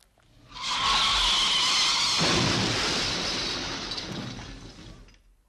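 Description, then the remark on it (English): Tires screech loudly for over a second, then a crash of breaking glass and crunching debris rings out and slowly fades, with no voices. “That was breaking glass. It sounded like an accident.”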